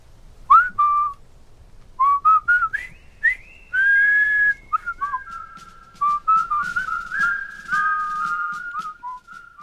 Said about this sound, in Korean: 아버지는 해골을 받아쥐고 휘파람을 불었다. 황량한 광장에 이 행진곡이 울려 퍼졌다. 나는 팔을 크게 흔들며 아버지를 따라 행진했다.